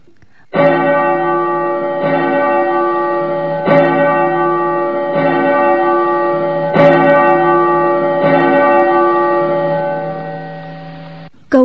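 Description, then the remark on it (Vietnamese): More than ten large bells in the Shaolin Temple ring together, echoing through the mountain forest, in a dense, sustained wash of resonant tones, with fresh strikes every second or so over about eleven seconds, loud and full, no voices. “bỗng nghe mười mấy cái chuông lớn trong chùa cùng giống lên vang động cả núi rừng”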